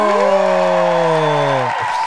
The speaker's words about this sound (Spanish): Así que... Eso, eso, dale, dale, dale palmas ahí.